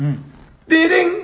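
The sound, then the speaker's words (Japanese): After a brief low murmur, a voice bursts into a short, bright sung fanfare, mimicking the jingle played when a quiz question is posed, to introduce a segment on board game rulebooks: loud and lasting about half a second. “これクイズ出す時の音ですね。”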